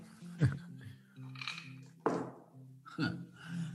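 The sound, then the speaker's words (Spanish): Three dull, heavy knocks on the door of a house by someone who forgot their keys, at an uneven pace, each a loud thump, with people talking underneath throughout. “Va a estar los próximos 15 minutos tocando esta puerta.”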